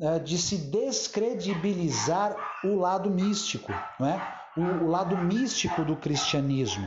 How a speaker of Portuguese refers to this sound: E até peço a você, não perca aí o, seu raciocínio, mesmo ouvindo os cachorros latindo ao fundo, afinal de contas, os cães ladram, mas a caravana passa, né?